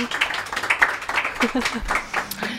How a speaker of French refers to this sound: Merci d'applaudir.